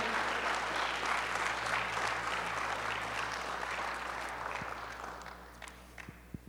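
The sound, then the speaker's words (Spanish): An audience claps loudly, applauding the Lord, in a dense, sustained burst of applause that gradually tapers off toward the end, with a few isolated claps and faint murmurs as it fades. “Aleluya, aplaude fuerte porque aplaudes al Señor.”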